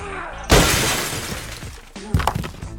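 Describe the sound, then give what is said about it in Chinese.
The windshield of Lao Bai's car is smashed to pieces: a loud, sudden shattering crash with glass crunching and tinkling as it fades, then a second sharp blow and more breaking glass a moment later. “临走前，把老白车的挡风玻璃给砸个粉碎。”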